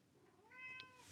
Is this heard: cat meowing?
yes